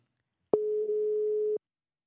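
A single steady telephone ringing tone sounds for about a second as a call is placed, a clean mid-pitched hum starting and stopping abruptly, fairly loud with silence around it.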